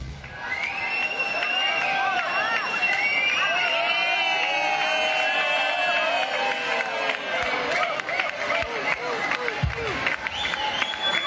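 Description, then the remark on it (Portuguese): A large crowd of people imitates a monkey, taunting someone as a monkey with loud hooting noises, many overlapping rising and falling calls blending into a dense, continuous roar for the whole stretch. “as pessoas imitando é, um macaco”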